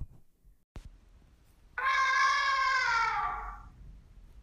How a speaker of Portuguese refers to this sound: Ele levantou a tromba e soprou com toda a força.